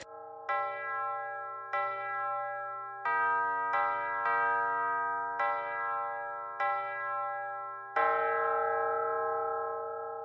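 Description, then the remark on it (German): Church bells in the church tower in Straberg, struck by hand to a melody (beiern) for the Vollkirmes, ring one after another in a slow melodic sequence, each with long shimmering decay, about eight strikes over ten seconds, clear with no voices. “Das sind die Glocken, dann geht der Herr Hahn oben im Turm und schlägt die Glocken nach einer Melodie immer wieder an.”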